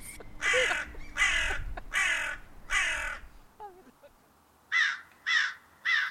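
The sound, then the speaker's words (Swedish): A gull calls loudly: four long, harsh squawks in a steady rhythm, a brief pause with faint chirps, then three shorter, sharper cries. No one speaks. “Jäkla mås!”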